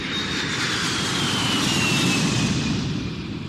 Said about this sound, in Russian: И было очень тихо, только иногда было слышно, как шумят самолеты. Усадьба находится на севере Подмосковья и недалеко от аэропорта Шереметьево.